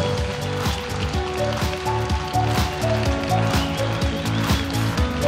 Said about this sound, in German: Ich möchte alle Leiter von Teams, alle Mitarbeiter von Teams am Sonntag, die beteiligt sind, und alle Spender bitten aufzustehen. Das ist euer Applaus.